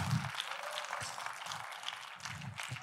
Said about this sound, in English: Love the claps. Thanks, guys. It really is encouraging.